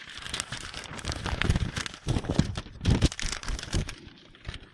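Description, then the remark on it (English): Paper being crinkled and shuffled, a run of dry rustling and crackling bursts that rise and fall for several seconds with no talking. “Gotta get the paper.”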